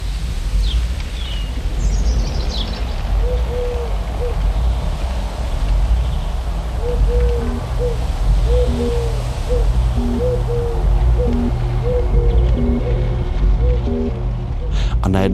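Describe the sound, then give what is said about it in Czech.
Birds call outdoors over a steady breezy hiss of light wind and rustling leaves: a few high chirps early on, then repeated low, soft hooting calls that recur in short bursts throughout. “Slyším hodně ptáků, kteří různě štěbetají a je lehký vítr a šuský listí.”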